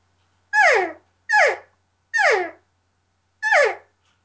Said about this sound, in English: But then when I have a diaphragm call in my mouth and I push my tongue up against the latex lightly, it sounds like this.